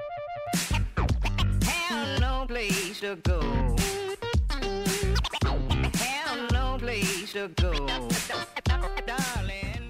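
Loud electronic music by a cult electro group, with a punchy, steady beat and repeated turntable scratches sliding up and down in pitch, dense throughout with no voices.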